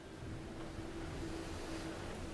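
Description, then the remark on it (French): Steady rushing wind and water noise fills the scene, constant, with a faint sustained humming whine running underneath, aboard the Maxi Edmond de Rothschild, a flying foiling sailboat racing at sea for the Jules Verne Trophy. No one speaks. “On vous embarque sur le premier bateau volant qui s'attaque à ce défi où chaque minute compte.”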